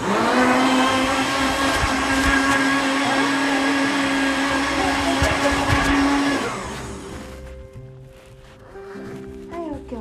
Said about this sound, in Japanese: ミキサーの音が鳴るのでちょっと音量下げてくださいねバイバイ じゃあ始めますよ